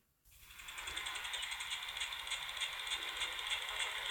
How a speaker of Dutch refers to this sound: Een krekel.